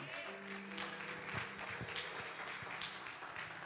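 A crowd applauds God steadily during a religious talk, a dense crackle of many hands clapping at an even level for several seconds, with a faint low hum underneath and no voices.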